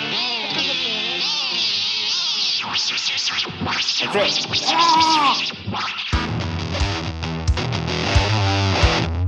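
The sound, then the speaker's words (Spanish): A loud, distorted psychedelic audio glitch of warbling, sweeping tones and scratchy noise fills about nine seconds, then shifts into a heavier, stuttering texture with thumping low bursts near the end. “Bueno, después de este pequeño impasse técnico disfrazado de experiencia psicodélica, estamos de vuelta para ya.”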